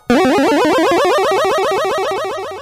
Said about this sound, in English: The charge comes in Mega Man 4, but but the the negative to that is um, in later iterations of Mega Man, uh, the charge is the same thing, but in Mega Man 4, the charge sound, the uh,